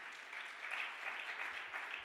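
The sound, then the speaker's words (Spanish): An audience gives another loud round of applause for dad, clapping steadily for about two seconds, a dense, even wash of many hands with a bright, hissy texture and no voices rising above it. “¿Cuánto le dan otro aplauso fuerte a papá?”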